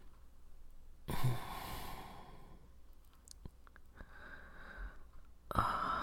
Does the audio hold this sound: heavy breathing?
yes